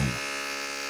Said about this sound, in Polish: Najbardziej wkurwia moją osobę straszny dźwięk wiertarki, która pewnego dnia o mało nie zrobiła dziury pomiędzy ścianą sąsiada a moją.